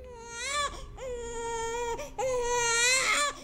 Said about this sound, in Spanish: Un día llegó a la casa de muy mal genio el niño estaba llorando porque era la hora de su tetero y ella decidió ese día darle un baño.